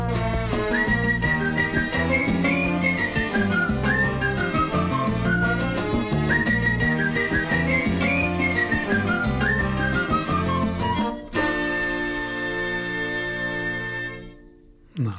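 An upbeat song by a Brazilian vocal trio with a bright whistled melody gliding over busy, rhythmic accompaniment. Near the end the whistling stops, a sustained chord rings out and fades.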